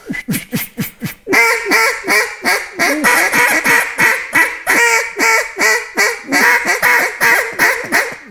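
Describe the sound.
A duck call blown in a steady run of loud mallard hen quacks, each sharp and nasal, starting clipped and quick then settling into a longer rhythmic series with no talking.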